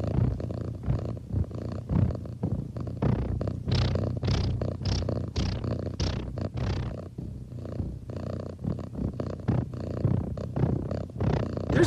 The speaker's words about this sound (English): You know, like that's the sort of classic, like avant-garde cat purring sound.